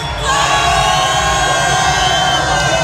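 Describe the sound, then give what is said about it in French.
A big audience in the upper section of a venue roars and cheers loudly when asked to make noise, the noise surging up after a brief quieter moment and holding as a dense, sustained wall of yelling voices. “Attention, en haut du bruit”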